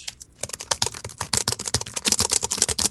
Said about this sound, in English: Um, I'm hacking away right now. Yeah, no, you're not. You're not tapping the keys. I can't hear the keys going